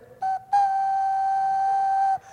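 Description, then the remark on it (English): A voice imitates a horn blast: a brief toot, then a long, loud, steady note held for well over a second before cutting off. No talking alongside it. “And on the seventh time around, I want you to have the priest get their horns and”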